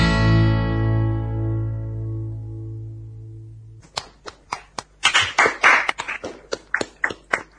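A song's last sustained chord rings out and fades, then scattered applause breaks out, a handful of sharp, uneven claps from a small audience, fairly close and loud.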